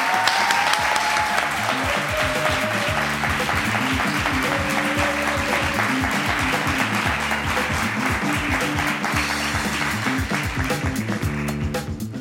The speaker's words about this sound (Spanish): Un fuerte aplauso para ella.